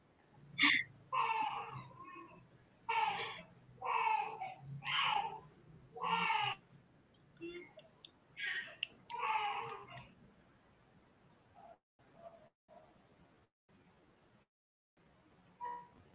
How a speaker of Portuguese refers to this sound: Desculpem a bebê, que ela está com fome.